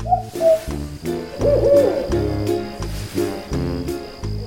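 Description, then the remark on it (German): An owl hoots repeatedly in low, hollow calls that carry over a steady rhythmic background, loud, with no one speaking. “Welches Tier suchen wir? Ich sag es dir. Die Eule.”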